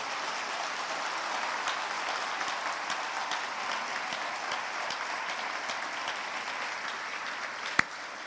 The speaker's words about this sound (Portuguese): Eu queria que a igreja agora, de pé, pudesse ficar de pé e pudesse agradecer a Deus a vida da nossa juventude dando agora uma salva de palmas em louvor ao Senhor.